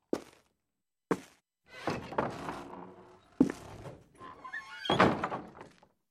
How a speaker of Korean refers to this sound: 하지만 나는 몸을 일으켜 안쪽에서 울리는 커다란 목소리를 들으며 안에 있는 두 번째 문을 밀어 열었다.